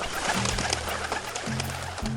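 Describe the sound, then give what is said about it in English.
Pigeons coo in low, throaty, repeated phrases in a park where breadcrumbs are tossed to them, with a steady outdoor hiss and scattered faint chirps and rustles behind them. No one speaks. “For anyone who wants to see a dinosaur up close, well, mosey over to a park and toss around some breadcrumbs. The local dinosaurs will flock to you.”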